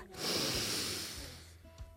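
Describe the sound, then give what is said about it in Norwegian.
A long, deep shared breath in, a steady airy rush lasting over a second before tapering off, with a faint breathy catch at the end. “Så jeg tenker vi tar et sånn felles pust nå inn”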